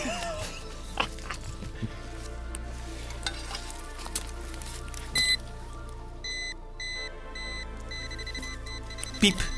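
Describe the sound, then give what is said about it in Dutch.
A metal detector sliding over sand gives a few short, high electronic beeps, each signalling buried iron, one near the middle and another at the end, over a steady crackling, hissing background with faint, indistinct voices. “Na piep graven we ijzer op.”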